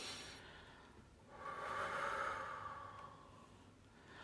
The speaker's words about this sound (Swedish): Och så andas du, så att du liksom slappnar av i, i käkarna. Det är svårt. Ja, så andas du ännu mer djupa andetag.